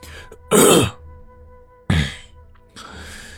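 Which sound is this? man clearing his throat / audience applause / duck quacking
man clearing his throat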